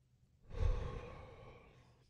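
A single deep, audible breath, a long airy inhale swelling into a sighing exhale that slowly fades, with no talking.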